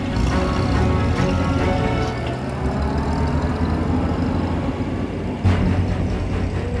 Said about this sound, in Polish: Opel Admirał zareagował natychmiast i ruszył do przodu. Ta luksusowa limuzyna była typowym pojazdem służbowym niemieckich oficerów wyższej rangi.